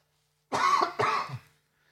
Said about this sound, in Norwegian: Nå må jeg hoste. Unnskyld.